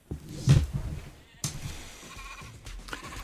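A sheep bleats, a few wavering, nasal calls in quick succession, moderately loud with a soft thump near the start and nothing else in the background.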